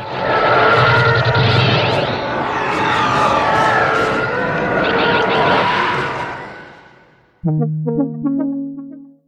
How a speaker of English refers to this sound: The elephant growls used in the TIE fighter make us feel fear on a primal level, and that's why they are so powerful.